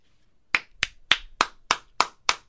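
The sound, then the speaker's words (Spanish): Seven sharp hand claps in a steady, evenly spaced rhythm, each crisp and bright with a quick decay, with no voices underneath. “Aplausos. ¡Bravo! Por esta nota.”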